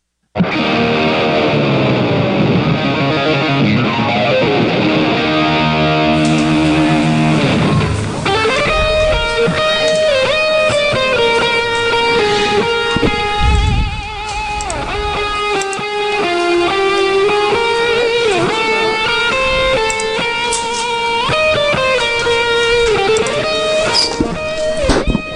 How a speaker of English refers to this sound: that is certainly a rendition of Hail Dear Ol' State that I don't think I've ever heard before, Rhino. Where'd you find that one? Uh, that was from a hype video from almost a decade ago. I, I ripped it off YouTube and I've had it ever since.